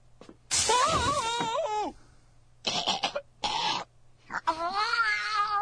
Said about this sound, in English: that darn cat.